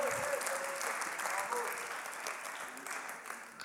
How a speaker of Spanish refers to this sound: Entonces recibimos con un fuerte aplauso